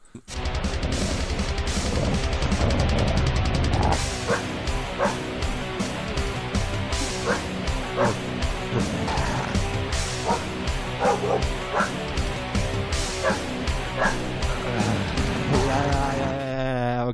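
Loud, dense heavy metal with dogs barking in rhythm, sharp bow-wows and yips punching through distorted guitars and pounding drums, continuous from start to finish.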